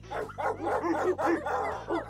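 Several dogs bark and yap in quick, overlapping bursts, fairly loud, with a low steady hum running underneath.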